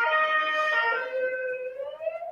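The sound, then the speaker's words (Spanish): A wailing emergency siren sounds steadily from outside, its tone sliding slightly downward as it carries on, fairly loud and continuous with no one talking over it. “Eh, madre mía, la sirena.”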